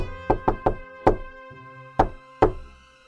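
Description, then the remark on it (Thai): Knocking on a wooden door, fairly loud: three quick raps, a single knock, then after a pause two more spaced knocks, with no one talking. “หลังจากที่แม่แพะได้ออกไปไม่นาน ก็ได้มีเสียงเคาะประตู ก๊อกก๊อกก๊อก”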